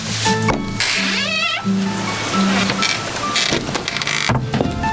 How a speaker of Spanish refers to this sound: El ruido de la puerta paraliza a Ruth.